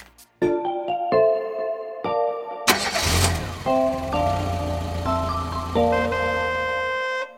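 A few bright musical notes ring out, then a car engine cranks loudly and catches, settling into a steady rumble under the continuing music. No one speaks.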